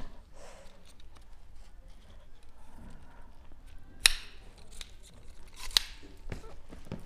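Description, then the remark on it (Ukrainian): Lightweight trekking poles, about 200 grams each, being unfolded and locked: faint handling rustle, then a few sharp clicks and snaps spaced a second or so apart. “Тобто ти їх просто складаєш? Так, да, да, ти їх береш.”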